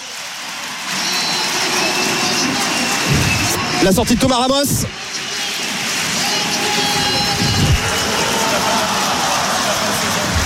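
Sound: stadium crowd ovation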